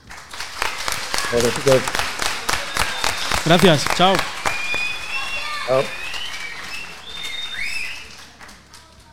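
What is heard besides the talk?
applause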